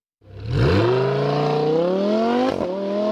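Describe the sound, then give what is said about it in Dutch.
A first-generation (not Evo) Lamborghini Huracán V10 engine revs up hard, its pitch climbing steeply then holding at a loud, sustained howl, with a brief dip near the end before the roar continues; the driver shifts at around 5000 rpm. “buiten eh, eh, het uiterlijk van de Lamborghini en misschien de kleur, maar is dat motorgeluid natuurlijk.”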